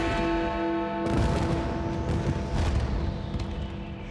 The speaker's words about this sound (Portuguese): Seis mil fogos de artifício brilharam no céu de Berlim, na Alemanha, iluminando o portão de Brandemburgo